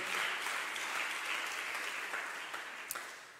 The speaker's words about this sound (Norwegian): Ja, Vi gir en god applaus for det. Det er bra.